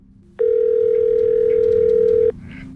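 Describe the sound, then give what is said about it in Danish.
A telephone dial tone hums steadily for about two seconds as a call is placed to DTU's Nanolab, a single loud, unbroken pitch that cuts off abruptly, with faint low background noise underneath before and after. “som vi øh, gerne må ringe til for at få det grundlæggende endnu mere på plads.”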